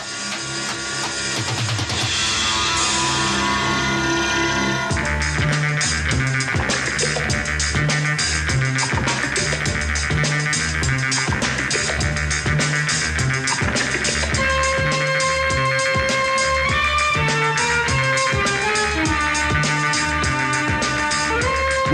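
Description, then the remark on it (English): The theme from the Indian film Don plays loud and continuous, opening with a brief swelling intro before a driving rhythmic beat and bright melodic lines take over for the rest. “And what you just heard there was the theme from the film Don.”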